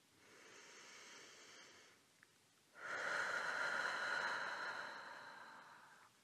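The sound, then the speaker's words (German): A slow, deep inhale followed by a brief pause and a longer, louder exhale, both airy, with no talking, taken as part of a guided deep-breathing exercise. “Also wenn du es auch schaffst, im Alltag viel tiefer zu atmen, viel entspannter zu atmen, nutz gern mal mit mir jetzt wirklich drei richtig tiefe Atemzüge, dass wir das jetzt mal hier gemeinsam üben, wo wir gerade darüber sprechen.”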